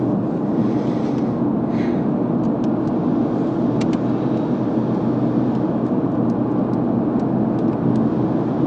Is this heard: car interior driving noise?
yes